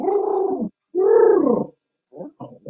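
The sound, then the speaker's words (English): A human voice mimics a cat with two drawn-out, wavering meow-like calls, then a couple of short clipped yowls. The sounds are fairly loud, with brief silences between them. “You know how them cats be you making them noises.”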